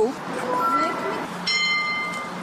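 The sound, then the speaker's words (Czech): An acoustic navigation beacon for blind pedestrians, triggered by the user's handheld device, sounds a single bright electronic chime partway through to signal which direction to go. It rings clearly and sustains for about a second over busy ambient noise and faint voices. “Teď VPN používáte a slyšíme zvukové znamení, jakým směrem jít.”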